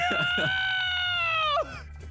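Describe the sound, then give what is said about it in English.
A person lets out a loud, sustained war cry, one long strained yell held steady for over a second before it breaks off with a falling tail. “The rest of them we told you to let out a, a, a, war cry, a sheer roar, war cry of.”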